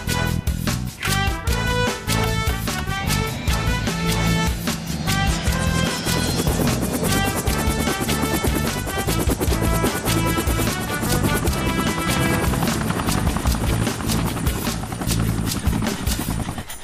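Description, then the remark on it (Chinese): A helicopter flies steadily, its rotor blades making a rapid, rhythmic chopping that stays loud for the whole stretch, with music playing along underneath. “看来直升机是最好的办法，一会儿见。”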